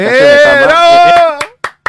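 A sustained, drawn-out vocal sound gives way to a few sharp hand claps near the end, applauding someone on a Discord call for learning to change their camera, spaced unevenly and quite loud.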